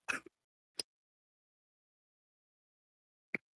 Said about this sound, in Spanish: Ah, perdón, que tengo tos.